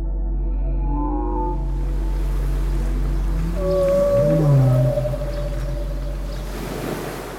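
Whale song: long, sliding tonal calls that rise and fall, some low moans and higher swooping cries, drifting over a steady low underwater rumble with no voices.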